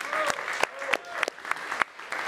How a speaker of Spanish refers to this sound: y que ese aplauso corresponda también para aplaudir con muchísimo gusto, para celebrar y agradecer